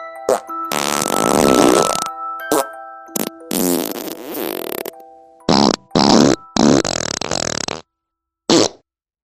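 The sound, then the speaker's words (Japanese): A series of loud, wet fart sound effects, recreated as realistically as possible, in a silent car: one long drawn-out blast followed by several shorter sputtering bursts with pauses between, ending in a brief final puff. No one speaks. “汚い音をできる限りリアルに再現していくので、お食事中の方は気をつけてね。”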